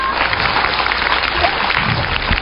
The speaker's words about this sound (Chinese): 有请。 哎呀，嗨妹啊！掌声欢迎我们嗨妹闪亮登场。